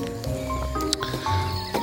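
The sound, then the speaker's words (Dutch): Birds sing at dawn, at five o'clock on a Monday morning, with a few short, bright chirps rising over a steady, continuous background chorus that carries on throughout. “En zoals gehoord fucking vogels zijn al wakker.”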